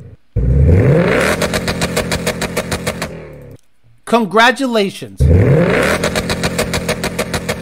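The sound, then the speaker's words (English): A car engine revs hard and bounces off the rev limiter in a rapid, stuttering pulse, twice, with a brief spoken word between the two loud bursts. “the one you slammed off the limiter for about a year”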